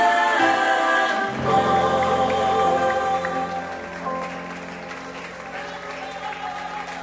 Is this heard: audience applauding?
yes